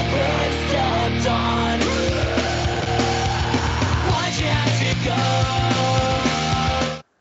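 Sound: screamed vocals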